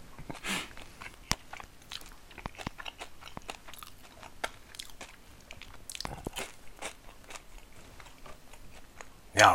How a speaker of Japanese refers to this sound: このパンはさ バゲットだから結構硬いじゃないそれなりにこの咀嚼時間がかかるから ちょっと放送事故みたいになるね喋りが止まってる時間が長いですよねいつもよりでもこの食べてる咀嚼音はいい音するよね